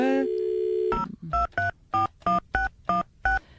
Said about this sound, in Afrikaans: goed, ek bel haar gou vinnig. Sit net so.